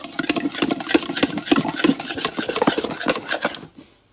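A spoon stirring in a bowl, with steady, rhythmic scraping and rasping strokes that run continuously for a few seconds before stopping. No one speaks.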